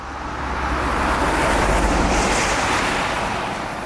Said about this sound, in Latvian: Bet kantora iela kā vienmēr bija skaļa autobusu un kravas mašīnu dēļ.